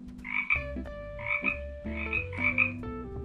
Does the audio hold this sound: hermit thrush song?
no